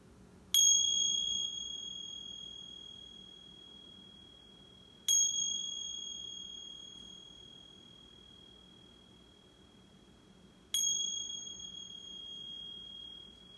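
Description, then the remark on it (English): A meditation bell is struck three times, several seconds apart, each clear ring with bright sustained overtones slowly decaying into quiet room tone. No one speaks. “Noticing your surroundings, sounds, temperature, it's feeling your body sitting here, lying down, or standing in this moment, and receiving the sounds of the bell.”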